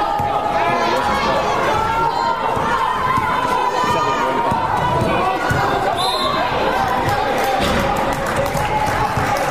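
Busy basketball game ambience in the final seconds of a game between San Gabriel and Mirasol, with San Gabriel leading 42-41: steady crowd chatter and shouting, shoes squeaking on the court and a ball bouncing, with a sharp whistle-like squeal around the middle, all at a constant lively level.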